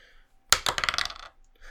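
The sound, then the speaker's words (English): A single die is rolled and clatters onto a hard tabletop with a sharp first hit, then rattles through a quick series of bouncing clicks that settle and stop, fairly loud; it lands on a one. “I'm gonna roll a die here.”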